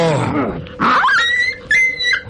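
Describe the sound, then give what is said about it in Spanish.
A dog attacks with loud snarls and sharp yelping cries in a few quick bursts over about two seconds, with no talking, as it leaps at a man's hand and sinks its teeth into it. “Yo qué sé y el perro, de un salto, sorprendiendo a todos, se arrojó contra la mano del huésped, hundiendo sus dientes en ella.”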